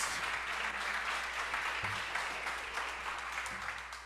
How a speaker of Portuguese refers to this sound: Você pode dar uma salva de palmas para o Senhor Jesus?